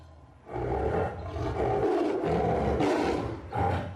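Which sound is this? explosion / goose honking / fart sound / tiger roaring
tiger roaring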